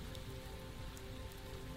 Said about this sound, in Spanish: Llovía, apenas un poco, pero a lo lejos se escuchaban los truenos de una tormenta que nunca llegó.